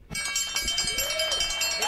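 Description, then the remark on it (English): A goat lets out a wavering, nasal bleat that rises and falls, set against a busy background of steady rhythmic clatter and noise. “These goats got to go somewhere.”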